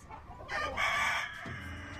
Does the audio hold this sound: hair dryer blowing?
no